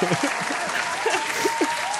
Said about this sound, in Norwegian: Applaus!